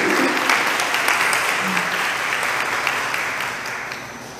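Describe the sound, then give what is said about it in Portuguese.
Sustained audience applause for the mannequins, a dense crackling wash of many hands clapping at steady loudness for several seconds before easing slightly toward the end. “Glória a Deus, pode aplaudir os manequins.”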